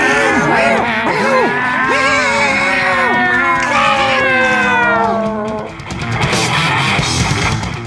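Several cats meow and yowl at once, their drawn-out, wavering cries overlapping loudly for several seconds before giving way to a rougher, noisier burst of feline calls near the end.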